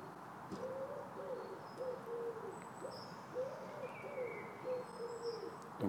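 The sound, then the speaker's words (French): A wood pigeon coos in steady, repeated phrases, clear, while a blackbird sings brief, faint whistled notes in the background; several wood pigeons answer one another. No one speaks. “en duo avec le pigeon ramier.”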